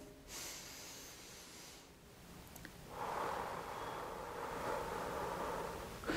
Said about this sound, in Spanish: Tienes que meter suficiente aire a los pulmones de una manera tranquila, calmada, relajada lo guardas un poquito y lo sacas. Vamos a hacerlo otra vez.